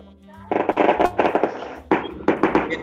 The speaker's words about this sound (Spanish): ¿Qué fue eso? ¿A quién fue eso? Fuegos artificiales, ¿eh? fuego artificial aquí en, el 26 de Realidad.